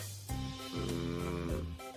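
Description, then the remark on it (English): A man, an uncle, snores loudly at 4 o'clock in the afternoon, each breath a drawn-out, strongly pitched drone that shifts tone several times, almost musical, with no talking. “Man, he even snores cool need to wake him up.”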